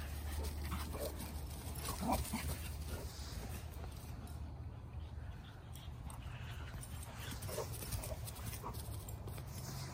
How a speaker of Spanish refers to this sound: Ahora les toca hacer ejercicio a los perros porque estuvieron también encerrados por la lluvia. ¡Córrele, Frida!